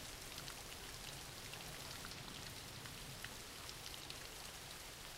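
Steady rain falls without pause, a dense hiss of countless drops with faint scattered ticks and patters on a surface, fairly quiet and even throughout, with no voices.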